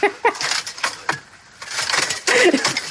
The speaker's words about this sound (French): Astier, il parle en latin autour d'une table oblongue évidemment, et on entend comme seul bruit de fond un bruit qui m'a rendu mais dingue déjà dès le début, le bruit d'armure en plastique qui font cling, cling, cling.